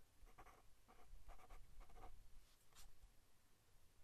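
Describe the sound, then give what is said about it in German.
A pen scratches across paper in several short, quick strokes, fairly quiet, as an answer to a quiz question is written down, with a low hum in the background and no one speaking. “Deswegen habe ich jetzt hingeschrieben: Marlon Brando.”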